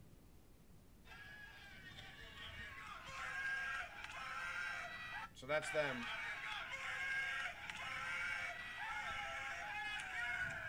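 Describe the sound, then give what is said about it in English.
Several voices make loud, continuous revving engine noises, pitch sliding up and dropping like gears shifting, with a sharp swoop midway; a person briefly speaks over it. “doing fake car noises, like shifting gears in a car.”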